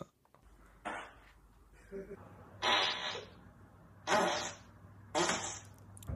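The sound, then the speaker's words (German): Four loud, spluttering fart noises made by a man burst out one at a time at uneven intervals, each lasting about half a second, over a faint steady hum in the background. “Wenn das ein Mann macht, ist es okay. Aber wenn eine, eine Frau ein Mösenfurz lassen würde”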